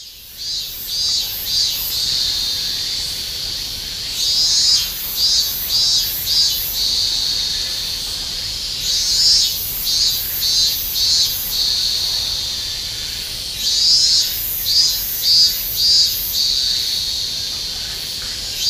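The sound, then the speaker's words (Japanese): A dense chorus of cicadas near the grounds of Yahiko Shrine in Niigata Prefecture, at summer's end, fills the air with a steady, high-pitched drone, swelling periodically into rhythmic pulsing bursts. No one speaks, and the insects are fairly loud. “過ぎゆく夏の名残、弥彦神社境内近くの蝉しぐれをお聴きください。”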